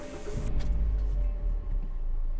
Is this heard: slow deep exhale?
no